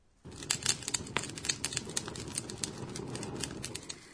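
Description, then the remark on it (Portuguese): A bonfire crackles steadily, with a dense bed of hissing flame broken by frequent sharp pops and snaps, moderately loud, with no voices. “Parece que alguém está fazendo uma fogueira.”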